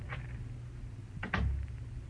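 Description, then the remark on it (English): A side door opens and shuts: a light click or creak first, then a heavier knock with a low thud as it closes, against a quiet background hum. “Listen, you beat it out that side door.”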